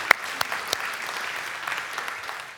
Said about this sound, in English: Let's give the Lord a little round of applause. Thank you.